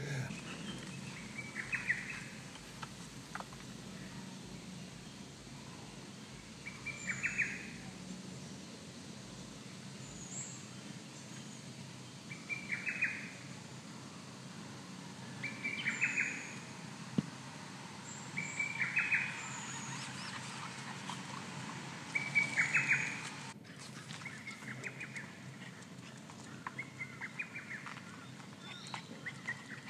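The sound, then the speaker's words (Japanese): A lesser cuckoo calls repeatedly outdoors, its short, sharp whistled phrases, heard as 'tokkyo kyokakyoku', recurring every few seconds over a soft, steady background hum; recorded over the weekend. No one speaks. “どうです聞こえましたかすかでしたけどごめんなさいね音ちっちゃかったねでも「トキョキョカキョク」って聞こえたねはいこれがホトトギスの声です”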